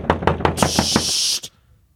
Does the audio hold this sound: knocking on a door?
yes